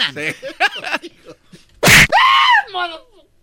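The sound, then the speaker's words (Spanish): A sharp, loud impact is quickly followed by a short, high-pitched scream with a mocking, taunting edge, then a smaller yelp. Brief voices come before it. “Se está burlando de ti ya con ese gritillo.”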